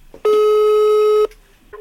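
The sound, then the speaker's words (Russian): A single loud, steady telephone ringback tone, heard while a phone call is being placed, lasts about a second, then cuts off into near silence. There is no talking, only faint background noise around the tone. “сейчас я позвоню Шуре, она обычно такие вещи лучше помнит”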